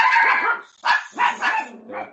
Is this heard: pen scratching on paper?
no